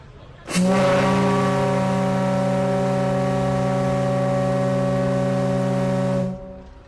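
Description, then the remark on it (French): The Titanic ocean liner's siren sounds one long, loud blast lasting several seconds: a deep, steady, rich-toned horn that holds its pitch, then cuts off, with a faint hiss beneath it. At 8 pm the liner's sirens sound three times over the town. “Il est 20h, les sirènes du Titanic retentissent trois fois dans la ville.”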